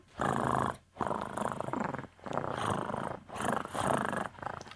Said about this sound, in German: Miau. Ich glaube, deine Katze hat einen Rasenmäher verschluckt.